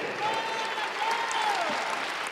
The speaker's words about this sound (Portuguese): Vamos aplaudir mais. Está chegando mais. Vem aqui, vem aqui, vem aqui, vem aqui, vem aqui. Olha que coisa linda. Ô oh, glória, vamos aplaudir.